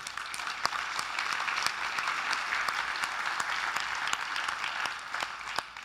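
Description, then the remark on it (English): An audience at a worship service breaks into spontaneous, steady, sustained applause, a dense wash of many hands clapping with a few sharper individual claps popping out, holding at an even level for several seconds with no talking. “I thank you for the spontaneity of that clap offering because I'm going to ask you to clap again”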